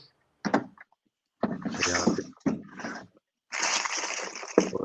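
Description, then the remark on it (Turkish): A drawer slides open with scraping and rummaging as a book is retrieved from it, in several separate bursts of shuffling and knocking divided by short silences. The sounds are fairly loud, with no one talking. “Dördüncü kitap çok fazla ortalıkta olmayan hatta müsaade edersen çekmecem de var. Hemen onu da göstereceğim.”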